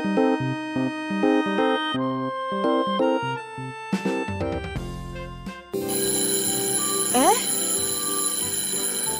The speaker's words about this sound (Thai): เสียงออดดังแล้วอุ้ยต้องไปเข้าเรียนแล้วล่ะค่ะ